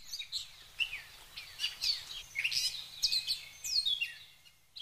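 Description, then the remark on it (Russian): Busy, overlapping chirps and tweets of a flock of sparrows repeat steadily, bright and chattering, with no voices present. “А над землей начали летать аисты и журавли – а им вдогонку весело чирикали воробьи.”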